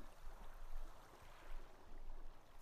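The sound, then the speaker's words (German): Soft water waves lapping gently against a lakeshore, a steady low wash with mild swells in intensity, fairly quiet and continuous with no voices. “Die sanften Wellen plätschern ans Ufer,”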